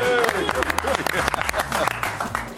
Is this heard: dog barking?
no